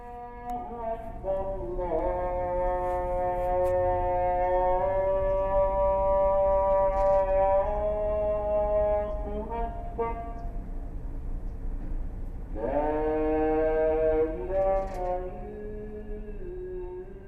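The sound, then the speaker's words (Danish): A call to prayer from a minaret in Jerusalem: one loud, amplified voice chanting long, sustained, wavering notes in two drawn-out phrases separated by a brief pause, over a steady low hum. “Med lyden fra denne minaret i Jerusalem byder jeg velkommen til den 13. udsendelse om islamiske imperier og islamisk kunst.”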